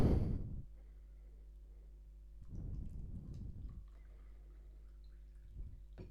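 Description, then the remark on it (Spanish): Quiet handling of a glass of water in complete darkness as someone guides the rim of the glass to their mouth to drink: a soft rumbling bump at the start, a longer muffled shuffle in the middle, and a faint tap near the end, with no talking. “Guié la boca del vaso de agua en completa oscuridad.”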